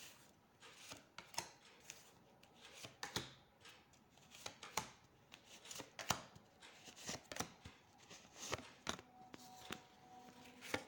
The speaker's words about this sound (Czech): Tak já už se dívám na vaši fotku, míchám u toho karty a mrkneme na období od teď cca do konce února 2023.